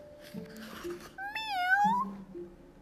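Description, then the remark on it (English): A single high-pitched kitten meow, drawn out and rising then falling in pitch, heard clear over a faint, steady background hum. “So he fetched a kitten.”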